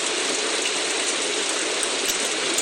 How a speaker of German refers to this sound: Nächster. Ein anderer Regen. Auch ein typischer, normaler Regen, den man kennt.